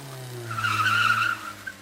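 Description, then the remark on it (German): A car's tires squeal in a sustained, high-pitched screech as it skids, the tire abrasion producing fine dust, rising in intensity midway, over a low engine drone, then fading near the end. “Nicht nur der Antrieb eines Autos ist eine Quelle für Feinstaub, sondern auch der Abrieb der Reifen.”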